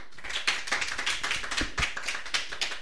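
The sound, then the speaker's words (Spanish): Audience applause: a patter of many hands clapping in a steady, dense crackle with a few sharper individual claps standing out, moderately loud, with no voices. “Bueno, un aplauso.”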